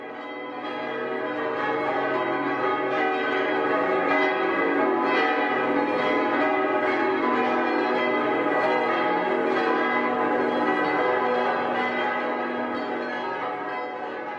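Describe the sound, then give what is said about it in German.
A large cathedral bell, the Heinrichsglocke, rung on Fridays at 3 pm for the hour of Christ's death, rings continuously and loudly, its deep, rich tone swelling and sustaining with dense overtones, strokes blending into a steady resonant wash with no voices. “Freitag um 15 Uhr zur Sterbestunde Christi läutet die Heinrichsglocke.”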